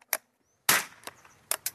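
Sharp small-bore rifle shots crack out as a hunter trains at a shooting range in Sørkedalen, north of Oslo, Norway: a quick faint pop, then a loud report with a short echo, followed by two more snappy shots close together.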